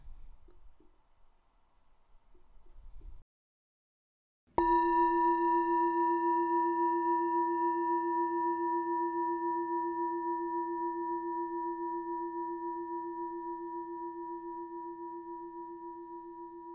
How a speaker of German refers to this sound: Wenn der Gong ertönt, öffne bitte deine Augen.